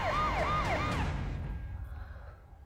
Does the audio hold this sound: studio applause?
no